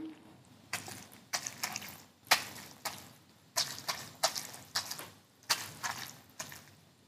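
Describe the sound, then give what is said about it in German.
Wet, squelchy slaps and squishes as a soaked cloth held in the left hand over a towel-covered table is tapped and kneaded with the right hand, about a dozen fairly loud bursts in an uneven rhythm, with no talking. “Und wenn ich mit der rechten Hand da so rauf klopfe und knete, dann klingt das wie der Frosch im Matsch.”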